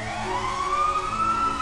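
Police car and fire engine sirens wail steadily, a rising tone sweeping upward over a low rumble of engines and traffic, as police cars with flashing red and blue lights rush past and red fire engines attend a burning high-rise building; no voices present.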